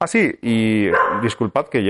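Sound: dog barking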